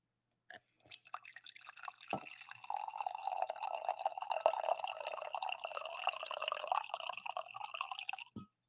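Coffee pours steadily into a cup for about eight seconds, a continuous trickling splash that holds at an even level before stopping abruptly, with no voices over it.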